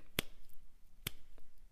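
Two crisp finger snaps, sharp and bright, spaced about a second apart, with a few much fainter clicks after them and no voices.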